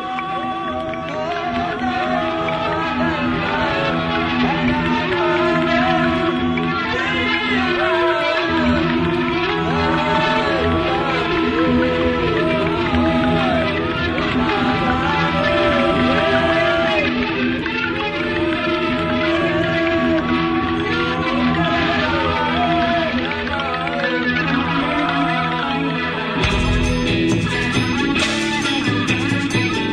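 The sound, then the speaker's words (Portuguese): A song with blues and rock and roll touches plays loud and steady throughout, with a full band and a wavering sung melody over a thick, sustained instrumental bed. “que traz pitadas de blues e rock and roll”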